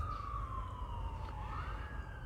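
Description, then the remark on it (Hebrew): An emergency vehicle siren wails steadily over a low rumble of traffic, its pitch dipping and then rising as it goes by, with no talking. “יש לנו רגע סירנה, זה זמן טוב לנשום.”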